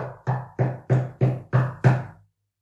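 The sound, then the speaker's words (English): About seven firm, hollow knocks in a steady, fairly quick rhythm, imitating a knock at the door by a father arriving home around 4 a.m. on Christmas morning, each with a dull low thud and a short decay. No talking. “we're like, holy crap, who's knocking at the door?”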